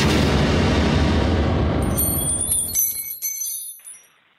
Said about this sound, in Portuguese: E aí a explosão destruiu o balcão de madeira, né? Grande parte da mercearia também.